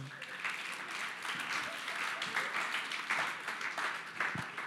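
Steady audience applause fills the whole stretch, a dense wash of many hands clapping at a fairly even loudness, with faint voices mixed into the crowd noise.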